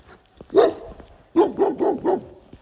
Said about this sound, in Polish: Mm, tak, psy szczekają ze wszystkich stron. Ale... Ale na szczęście wszystkie są bramki zamknięte.